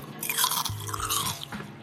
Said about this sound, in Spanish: Y ya se acabó. O sea, eso, eso fue todo tu crujido, no manches, no.